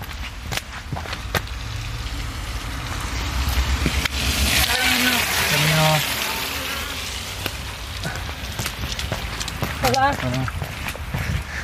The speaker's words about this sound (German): Es ist echt krass, wie sehr es regnet. Jetzt wird es gerade schon ein bisschen besser. Es ist Wahnsinn, weil vor allem über mir ist schon blauer Himmel. Und ich bin genau an der Grenze, wo es richtig dunkel ist. Und ich patsch hier durch die Straßen.